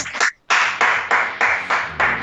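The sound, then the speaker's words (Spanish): A crowd at a live wrestling event applauds in rhythmic unison, dense noisy bursts of clapping swelling at a steady beat, about four per second, loud and continuous with no talking. “Los aplausos.”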